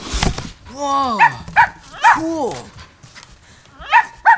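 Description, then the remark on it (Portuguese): A small dog, just found in an opened cardboard box given as a present, gives a handful of short, high-pitched yapping barks, with a drawn-out whiny vocal sweep between them and a rustle at the start. “O rapaz abre a caixa de papelão e vê que é um cão.”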